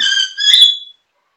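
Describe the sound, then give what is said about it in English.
A loud bird call, a single shrill, whistling cry under a second long with a slight rise in pitch before it cuts off, followed by silence. “sorry, that bird, I might have to go inside.”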